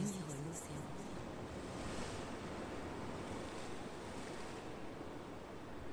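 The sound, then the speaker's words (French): Ocean waves wash in a steady, continuous roar of surf, broad and hissing, with no distinct breaks between swells and a faint gust of wind beneath. “L'océan sur un banc, je mire l'océan.”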